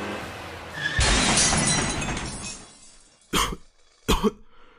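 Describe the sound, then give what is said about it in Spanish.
A loud, sudden car crash with shattering glass, the noisy burst ringing out for over a second before fading, followed by two short, sharp coughs. “baja la velocidad, vamos a chocar.”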